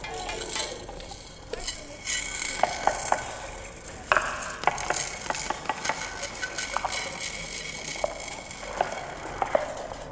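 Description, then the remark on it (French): Irregular clicking of a small blue rotating ratchet toy, with sharp ticks scattered over a continuous dry, rasping scrape. No one speaks. “il y a un petit truc bleu ici et ça va tourner. Et ça fait quoi comme son Bah ça fait un bruit de crabe un peu.”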